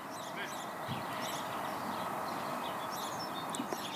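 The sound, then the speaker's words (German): Birds sing and chirp outdoors in scattered, overlapping calls over a steady bed of broad ambient noise with a faint murmur in the background. “Und dann sind dir vielleicht auch die Vögel aufgefallen.”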